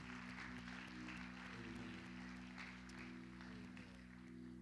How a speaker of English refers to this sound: Let's clap our hands